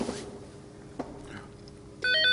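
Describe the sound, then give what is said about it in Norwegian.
An old cordless house phone lying on a table starts ringing near the end, a loud electronic warbling trill that cuts in abruptly after quiet with a soft knock. “Så ringer ja. pinadø den gamle trådløse hustelefonen som ligger på bordet.”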